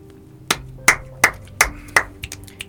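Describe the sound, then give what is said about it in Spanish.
A person claps five times, sharp, evenly spaced and fairly loud, then adds a few softer, quicker claps as the clapping trails off. No one speaks. “Yo, estoy aplaudiendo porque estoy aplaudiendo el mato.”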